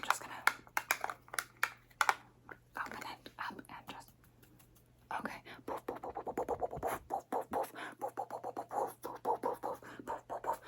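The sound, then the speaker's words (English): Soft brushing and tapping of a makeup brush applying setting powder over BB cream, many quick scratchy strokes in an uneven rhythm, with faint whispering in the background. “I sometimes just do setting powder after I do the BB cream.”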